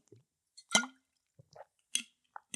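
Wet mouth sounds of someone drinking a sip of water: a slurping sip followed by a few soft, irregular swallowing and smacking noises, quiet and with no talking.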